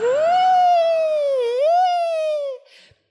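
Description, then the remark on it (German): A police siren on a New York street wails loudly in one sustained tone, sliding up, dipping briefly and rising again before cutting off after about two and a half seconds, followed by a faint rustle. “Das ist das typische New York-Geräusch.”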